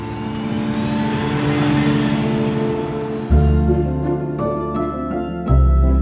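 A bus engine rumbles and revs as the vehicle pulls away, the deep drone jumping up twice as it shifts gears and accelerates, steady throughout.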